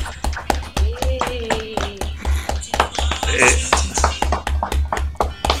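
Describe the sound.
A burst of applause for a first-place winner, with many sharp, overlapping hand claps in a quick, steady patter throughout, fairly loud, and some voices mixed in beneath the clapping.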